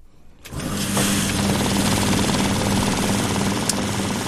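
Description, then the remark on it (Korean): A bank's banknote counting machine starts up after a brief quiet moment and runs steadily, counting paper money with a loud, dense mechanical whir and a rapid fluttering rattle of notes riffling through. No voices. “지폐가 막 돌아가는 소리예요. 그 외 지폐 세는 기계 있잖아요. 그 작동음입니다.”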